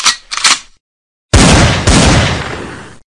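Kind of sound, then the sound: sound effect, gunshot sound effect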